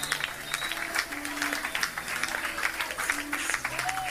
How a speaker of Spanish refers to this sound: Y, los hermanos aplaudiendo. En el templo.